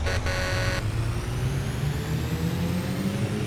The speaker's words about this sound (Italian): Suono il clacson